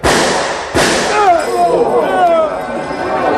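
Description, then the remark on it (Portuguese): Jerônimo draws both revolvers and fires before Cobra can shoot, knocking Cobra's guns away: a sharp, loud revolver shot cracks out, with a possible second report right at the start, followed by wavering, sliding tones and a lingering, noisy tail. “No abrir e deixar de olhos, Jerônimo puxou dos dois revólver e ainda fez fogo antes do cobra atirar!”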